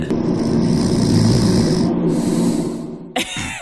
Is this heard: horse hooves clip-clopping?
no